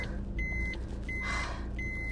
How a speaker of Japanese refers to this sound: すげえ車来るじゃん